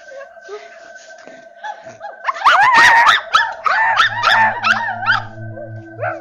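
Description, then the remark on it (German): Several dogs bark and howl together in a loud, excited chorus as they find the bandits they were tracking, with overlapping yelps and long wavering howls rising after a quieter start. “Die Hunde haben die Banditen gefunden.”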